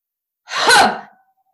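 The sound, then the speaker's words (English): A single forceful, breathy exhale bursts out sharply, like a big cough, then tapers off over about half a second. It is fairly loud, with silence before and after. “It's like a big cough. It's like a yeah. big exhale, right?”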